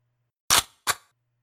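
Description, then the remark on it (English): Rifles being cocked, chambering a round: two sharp metallic clacks about a third of a second apart, the second slightly softer, with near silence around them. “The human controllers had cocked their rifles, chambering around.”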